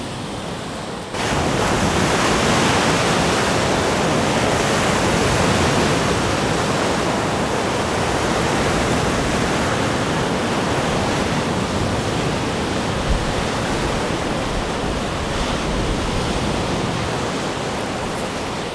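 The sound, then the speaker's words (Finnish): Loud, continuous roar of large waves, over a metre high, breaking on the shore of Lake Päijänne, a dense wash of surf that swells in after a brief quiet start and keeps churning steadily, with some wind noise mixed in. “Nyt mä laskeudun tähän rantaan ja kova kohina pitäisi alkaa aallot on korkeita, ylimetrisiä.”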